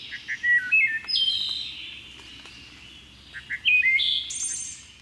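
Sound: wood thrush song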